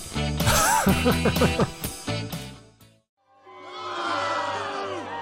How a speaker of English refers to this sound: Smithers, are they booing me? Uh, no, they're saying Boo Earns, Boo Earns.